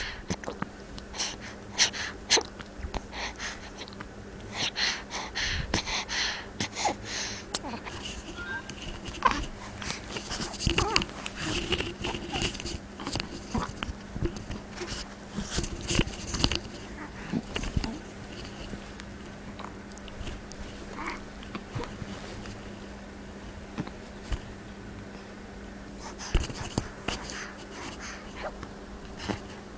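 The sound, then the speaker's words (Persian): Soft rhythmic suckling and swallowing sounds from a newborn feeding on breast milk at the breast, with small breaths and gulps repeating steadily over a quiet, steady background hum. “لطفا یک دقیقه به صدای نوزادی که از شیر مادر می نوشد گوش کنید”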